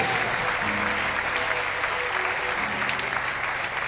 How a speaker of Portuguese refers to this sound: E se você concorde, aplauda ao Senhor comigo. Glória a Deus.